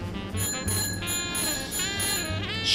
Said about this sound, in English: Surely the tinging resonance of my bell would inspire speed.